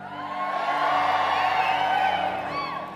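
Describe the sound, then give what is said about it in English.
An audience in a church service cheers loudly as the Bible is opened, a dense wash of many voices shouting and whooping together that swells in and holds steady for a few seconds before easing slightly, with scattered higher yells. “Come on, we get louder than a Super Bowl day.”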